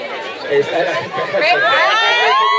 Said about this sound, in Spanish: Me encanta cómo grita la gente.